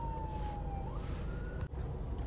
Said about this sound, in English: There's an ambulance going past.